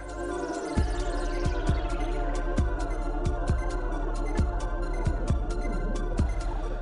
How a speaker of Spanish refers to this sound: El tema, ya lo estamos escuchando, empieza suave antes de pasar a unas percusiones profundas